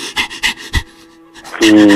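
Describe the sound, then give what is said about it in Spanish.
A person imitates a dog panting with quick, rhythmic breathy huffs, about five in a row, fairly loud, then breaks into a brighter voiced sound at the end. “Hasta, yo pensé que estaba cerca de un perro al que tenías ahí sujetado, ¿no?”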